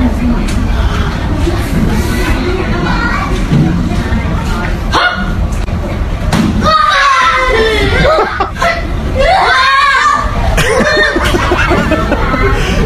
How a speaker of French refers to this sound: C'est dans une classe avec plein d'enfants et, euh, et une enseignante qui fait un tour de magie pour faire capoter les enfants.